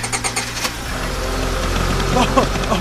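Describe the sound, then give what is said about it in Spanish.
A boat motor, fuelled with a fuel called Nanchol, cranks with a quick series of sputtering pulses, then catches and settles into a steady, low rumbling drone that keeps running. “¡Ay, cómo extrañaba ese sonido!”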